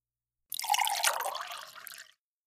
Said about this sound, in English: So please, pull up a chair, let's pour you a cup of coffee, and let me share a bit of advice that I gave a student.